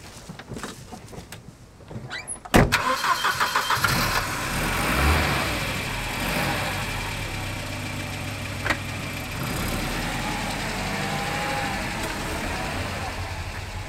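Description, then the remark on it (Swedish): A few clicks and thumps, then a car engine turns over and catches, settling into a steady rumble of driving with fairly loud road noise, as the car drives on a small gravel road through hilly forest of oak and hazel toward an execution site in the neighbouring parish of Segerstad. “Vi tar bilen och kör mot Segerstad och Timbergs avrättningsplats.”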